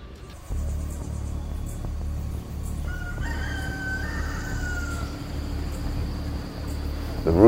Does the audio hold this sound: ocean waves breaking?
no